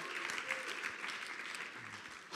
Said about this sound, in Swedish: Vi kan jubla över den segern i den arenan, i vår arena just nu. Yes, det är värt en applåd och lite busvisslingar och lite ära till Gud. Woo!